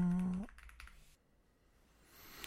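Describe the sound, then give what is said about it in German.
A brief voiced sound at the start, then a few quick, soft clicks of computer keys or a mouse as someone clicks to look up a game's price, followed by quiet. “Ähm, aber wartet kurz, ich klicke hier”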